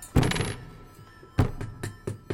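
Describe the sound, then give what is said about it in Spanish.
A handful of sharp hammer strikes land at uneven intervals, fairly loud, as a crate is nailed shut, each blow leaving a brief metallic ring before the next hit. “Se oyen martillazos.”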